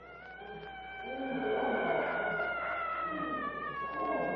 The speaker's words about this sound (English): From a distance, the weird cry of the yellow men resounds eerily through the night.